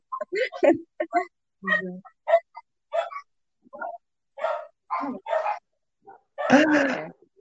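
A dog barks in a rapid, irregular series of short yaps and yips, ending with one longer, louder bark.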